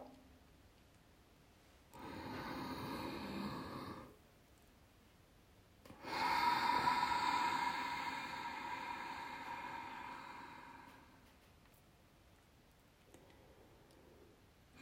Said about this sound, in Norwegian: Og pust sakte ut. Prøv å tømme lungene fullstendig. Se om du kan la åndedrettet få roes ned. Er det vanskelig å konsentrere seg om pusten, bare sett litt ekstra lyd på den.